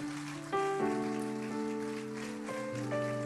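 An audience applauds God steadily, a dense crackling wash of applause that doesn't let up, with sustained organ-like keyboard chords shifting underneath. No one speaks.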